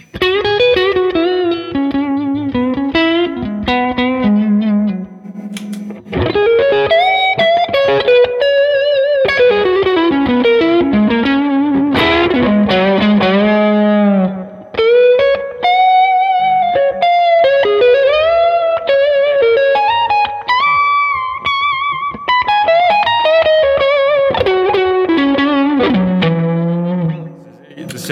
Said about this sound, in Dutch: het is eigenlijk een hele veelzijdige gitaar.